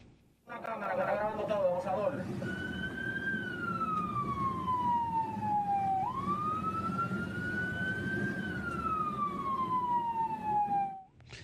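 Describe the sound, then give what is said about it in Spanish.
An ambulance siren blares, opening with a rapid yelp and then switching to long rising-and-falling wails over a steady engine and traffic rumble, as the ambulance drives behind a blue car that will not let it pass. “Eh, va en la ambulancia detrás de un carro azul que no lo deja pasar y le tiene que decir algo por el altavoz de la ambulancia.”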